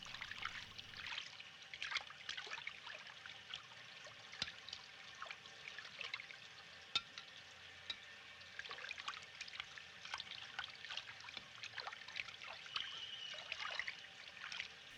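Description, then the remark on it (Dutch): Someone puttering about in a kitchen in the film Jeanne Dielman, 23 quai du Commerce: water trickles and pours steadily while small clicks and knocks of handled objects punctuate it, all fairly quiet and with no one speaking. “Ehm, laten we even horen hoe zo'n dealman in de keuken aan het scharrelen is.”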